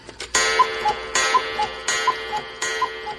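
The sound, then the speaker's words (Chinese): A clock ticks steadily with no voices, four strong, bright strokes evenly spaced under a second apart, each followed by a softer, higher tick in between, giving a regular tick-tock rhythm. “时钟当当的敲了十二下，把睡梦中的美女唤醒了。”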